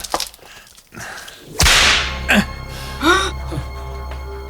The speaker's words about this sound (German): Eine Peitsche?